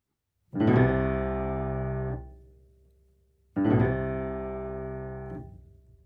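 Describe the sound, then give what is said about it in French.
Double basses in a Beethoven piece imitating funeral drum rolls with a kind of appoggiatura: two long, loud, low rumbling notes, each starting with a grainy attack and lasting under two seconds, separated by a brief pause, with no voices. “On entend bien l'imitation par les contrebasses des roulements de tambours”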